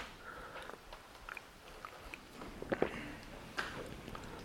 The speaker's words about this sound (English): Let me take a sip of water and then we finish with a recitation uh, of the sharing of merits.